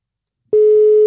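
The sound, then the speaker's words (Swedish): A steady electronic telephone tone starts abruptly halfway through after a brief silence, holding one loud, clean pitch like a line tone during dialing. “Nu ska vi ringa en uh, fellow uh, eh, 420 businesskonstnär.”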